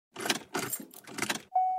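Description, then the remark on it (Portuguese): A car engine cranks in three short, grinding bursts without catching, followed by a steady electronic warning tone. Fairly loud, with no talking. “O carro não tá ligando”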